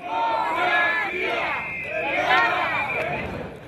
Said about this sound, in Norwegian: 5000 pro-europeiske demonstranter står utenfor parlamentet i Aten og vifter med EU-flagg. Noen blir der til en ny låneavtale for Hellas er i boks.